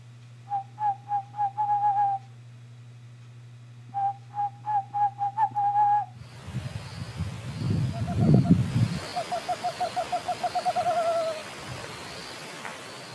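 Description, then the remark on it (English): A person imitates a Western screech owl: runs of short, whistled hoots that speed up like a bouncing ball. The calls repeat in several bursts, with the last one over a rushing, noisy background. “So see if I can uh, do justice to an imitation here of the Western screech owl.”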